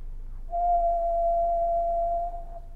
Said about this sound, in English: Right, and I happen to have emailed myself a 60-second uh, one kilohertz sound file.